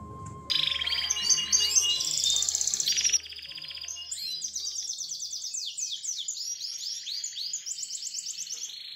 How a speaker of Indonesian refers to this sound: Akhirnya, kelar juga deh ngemandiin burung ayah.